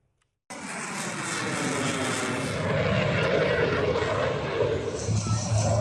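After a brief silence, a loud, continuous roar of Rafale, F-16 and F-18 fighter jets sweeps in and fills the air during a NATO Tiger Meet 2022 air display at Araxos air base, Achaea, Greece, a dense, rushing engine noise that stays powerful to the end.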